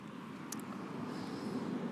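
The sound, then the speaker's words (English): A steady low rumble of traffic drifts in from outside at night, a continuous wash of many passing cars, with a couple of faint high clicks early on. “Holy crap, there's a lot of cars tonight.”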